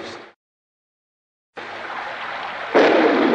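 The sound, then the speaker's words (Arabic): A loud, sustained rumble of thunder rolls in after a brief silence, swelling even stronger toward the end, with a noisy, rain-like wash and no voices. “دعاء الرعد يقول سبحان الذي يسبح الرعد بحمده والملائكه من خيفته”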